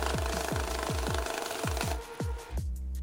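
A machine thumps and clatters in a steady, fast rhythm, roughly three beats a second, over a continuous mechanical hum, loud like a printing press running.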